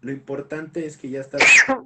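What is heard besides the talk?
sneeze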